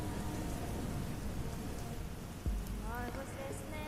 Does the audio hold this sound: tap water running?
no